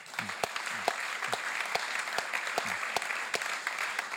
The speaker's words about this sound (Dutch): Mag ik een heel warm applaus voor Dirk Bezemer.